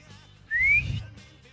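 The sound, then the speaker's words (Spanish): A single eerie whistle of a folkloric creature glides slowly upward in pitch for about half a second, clear, over a low background rumble, then fades out. “El Pokémon tiene un silbido en general, que es un silbido ahí”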